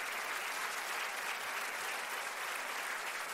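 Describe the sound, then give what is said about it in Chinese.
An audience at a doTERRA (爱多美) event in Taiwan applauds steadily, a dense, even wash of many hands clapping at once that holds a constant loud level throughout with no voices standing out. “那啊，掌声来！”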